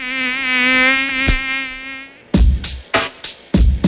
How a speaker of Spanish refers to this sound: El mosquito que transmite el dengue vive en el agua clara que parece limpia y se juntan las gomas, los tachos, los aljibes, cacharros, chapas acanaladas que juntan agua, tanques de agua sin tapa y floreros.